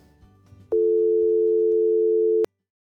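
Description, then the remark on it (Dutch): A loud, steady telephone dial tone sounds for nearly two seconds while a call is placed to Brussels, then cuts off abruptly, preceded by faint low background rumble. “Het geluid valt misschien een klein beetje tegen en dat komt omdat ik haar bel in Brussel.”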